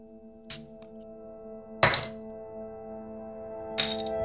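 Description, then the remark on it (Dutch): Bottles of La Trappe beer being opened to be poured: three sharp, loud pops and clinks spaced about a second and a half to two seconds apart, over a low steady hum, with no talking. “Ik ga ze openmaken en inschenken.”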